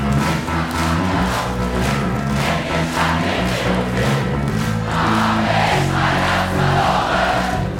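A large concert crowd cheers and sings along loudly and continuously, a dense roar of many voices with rhythmic surges and chanting over a steady low musical rumble.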